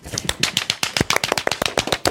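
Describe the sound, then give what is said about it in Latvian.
Live hand clapping, used in place of artificial applause sound effects: a quick, uneven flurry of sharp, crisp claps that keeps going steadily for about two seconds, with no voices. “mākslīgos aplausus, uh, skaņu efektus es neatradu, bet labāk jau ir tad dzīvajā no sirds uz sirdi.”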